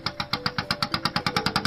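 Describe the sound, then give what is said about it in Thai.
A small 'e-taen' farm truck engine chugs steadily as it is ridden back to the sea, its loud, rapid thumping pulses repeating about seven times a second with a rattly, knocking edge and no voices. “ขออนุญาตนั่งรถอีแตนกลับทะเลนะ”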